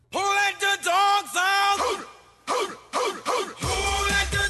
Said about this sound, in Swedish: som ni hörde där, Who Let The Frogs Out. Ja. Denna fantastiska jingel.